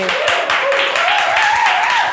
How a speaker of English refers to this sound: So let's have a little round of applause.